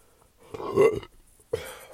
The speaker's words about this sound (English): Fuck, keep burping.